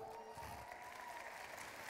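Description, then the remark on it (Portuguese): Steady audience applause for a visiting couple, one of them a pastor from Portugal, a dense wash of many hands clapping at an even, sustained loudness throughout, with no break or fade and a faint murmur of voices mixed in. “Salva de palmas para eles.”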